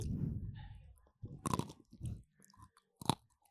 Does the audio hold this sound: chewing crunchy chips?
yes